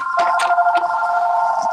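A telephone rings with a steady, electronic warbling tone that holds for the whole moment, fairly loud, with faint clicks and rustles underneath and no talking.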